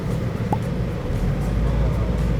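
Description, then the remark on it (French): Steady low rumble of a car cabin while driving, a constant engine and road drone filling the background with no one speaking. “Travaille même en voiture.”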